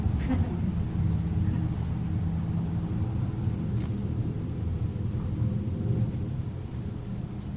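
A Harley motorcycle engine rumbles steadily, a deep, throaty low growl that holds at an even loudness for several seconds with no one talking.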